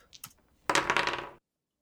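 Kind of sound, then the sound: household object, five dice being rolled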